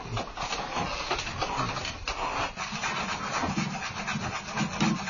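A black paper fan being sanded with mujicao (木屐草), a Chinese medicinal herb with ridged, burr-like stems used in place of sandpaper: steady, rasping back-and-forth rubbing strokes in a continuous rhythm, moderately loud and gritty, with no voices.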